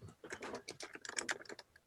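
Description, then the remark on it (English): Rapid typing on a computer keyboard, a steady stream of crisp key clicks with slightly uneven rhythm, heard on its own without any talking. “you're going to have to hear me typing.”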